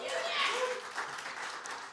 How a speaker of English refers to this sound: Give them another just a beautiful round of applause.